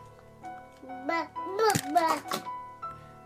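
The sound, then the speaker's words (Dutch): A baby babbles and coos at three in the morning, and partway through a single short clack cuts in as he tosses away his pacifier, then the little voice carries on. “En je, je, hoort echt dat hij de speen weggooit op een gegeven moment.”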